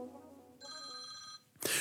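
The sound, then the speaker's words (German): A telephone rings with a bright, steady electronic trill lasting under a second, then cuts off abruptly into a brief burst of harsh noise as the caller hangs up. “0800 hat aufgelegt.”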